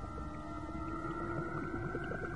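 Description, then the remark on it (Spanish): An eerie, drawn-out moaning lament hangs steadily in the air in an underground tunnel, a loud continuous wail with layered tones that echo through the long enclosed passage, with no voices present. “Periódicamente me detengo para escuchar el lamento.”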